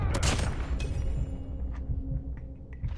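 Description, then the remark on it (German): Rapid bursts of video game gunfire crackle over a low rumbling background, with sharp shots clustered early and scattered reports continuing throughout, moderately loud. “Hm, er trifft wieder jeden Schuss.”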